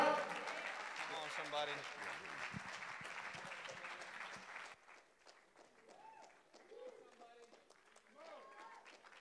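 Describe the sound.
A church audience applauds in a loud, dense wash of clapping for about five seconds as a preacher comes up to bring a word from the Lord, then it thins to quieter scattered claps as voices call out and speak over it.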